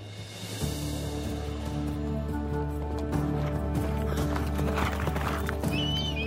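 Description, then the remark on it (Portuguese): Horses ridden by hunters with hats and eagles, returning from the mountains, trot with a steady clip-clop of hooves over a constant low, humming drone, and a short high whinny rings out near the end. “Os cavalos, os chapéus e as águias faziam eles parecerem com deuses vindo de outra época.”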